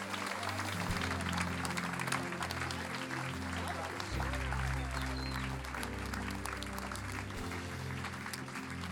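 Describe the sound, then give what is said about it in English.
A church audience claps steadily and enthusiastically for a man who has just prayed a salvation prayer, a dense wash of applause over a low sustained musical drone, with faint voices mixed into the background. “Come on, let's give him a clap.”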